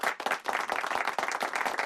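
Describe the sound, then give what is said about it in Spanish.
A short burst of applause for Charles Chaplin: many hands clapping rapidly in a dense, steady patter, fairly loud throughout with no voices over it. “Un aplauso para Charles Chaplin.”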